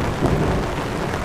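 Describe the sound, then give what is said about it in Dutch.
A thunderstorm sound effect: steady rain pours down with a low, rumbling roll of thunder underneath, a dense continuous wash of storm noise that stays loud and even throughout. “Nou, even die regen uit hoor, hop.”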